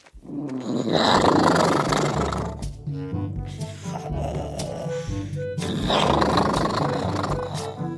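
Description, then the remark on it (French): A loud, deep dinosaur snore sound effect, from a dinosaur named Elliot asleep in a bag: two long, rumbling roar-like breaths separated by a gravelly, groaning middle stretch, with no one speaking. “Et je ne sais pas si vous avez déjà entendu un dinosaure qui ronfle, mais disons qu'il ronfle fort, très très fort.”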